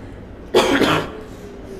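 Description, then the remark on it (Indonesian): A single harsh cough with a throaty clearing from a woman said to have tuberculosis, fairly loud, lasting about half a second, followed by quiet room noise and a brief faint click near the end. “Ibu sobat batuk ini Bagaimana ada undang tiba bu dia ini ada penyakit TBC oh ya.”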